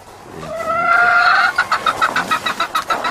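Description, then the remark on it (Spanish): Very young hens cluck: a drawn-out, wavering squawk gives way to a quick, steady run of about nine sharp clucks. No one speaks. “Las pollas están hermosas, las pollas, ¿eh?”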